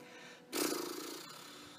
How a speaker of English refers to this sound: Breathing in. And breathing out too. Try to blubber your lips here, see what happens. Try it one more time.